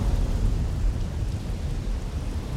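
Deep, rolling thunder rumbles continuously beneath a steady wash of heavy rain, loud, with no voices.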